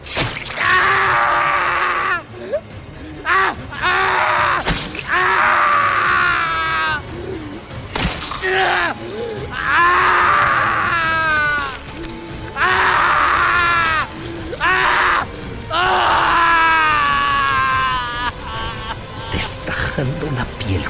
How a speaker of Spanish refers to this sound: gritaba de dolor. Pero apenas si se podía mover. Mientras la daga arrancaba la piel de su espalda, dejando su carne viva expuesta al aire.